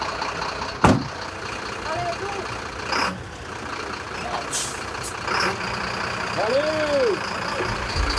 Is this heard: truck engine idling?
yes